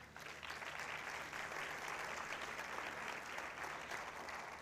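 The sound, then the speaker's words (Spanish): An audience breaks into sustained, dense applause to God, a steady roar of many hands clapping at even loudness for several seconds with no voices standing out. “un fuerte aplauso a Dios por esto.”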